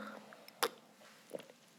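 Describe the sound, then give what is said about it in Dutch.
A quiet sip of water: a brief wet slurp, then a soft swallow a moment later, with faint breathy mouth noises and no talking. “Ja, neem even een slokje water.”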